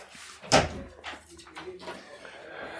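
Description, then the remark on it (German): A door is opened to let a dog out, with a sharp clunk of the latch, followed by faint rattling and soft shuffling movement, with murmured voices in the background. “machen wir die Tür zu? Auch? Die machen wir wieder zu”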